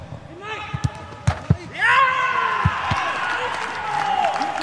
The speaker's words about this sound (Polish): Siedem bramek, w tym dwie w sobotę w wygranym meczu z Arminią w Bielefeld, gdzie to co na boisku niosło się niewiarygodnie po pustych trybunach bez kibiców.